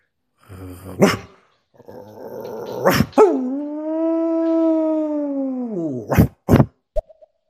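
A dog growls and gives a sharp bark, then lets out a long, steady howl lasting a few seconds, ending with a couple of quick, loud barks.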